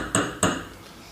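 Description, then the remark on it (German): Two crisp clinks of drinking glasses being set out on a table, spaced about a quarter second apart, each with a short ringing tail and no voices. “ich habe die Gläser schon mal aufgebaut”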